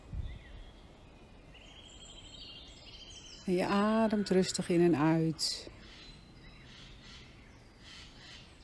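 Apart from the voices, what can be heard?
birds singing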